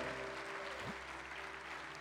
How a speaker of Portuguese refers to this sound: Dê um brado a Ele ele, aplauda aqui, adore. Ei!